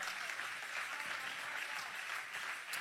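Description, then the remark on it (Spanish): A crowd applauds steadily, a dense wash of many hands clapping at once with no clear gaps, sustained at an even level throughout. “Si ese es el aplauso que usted le va a dar a mi padre.”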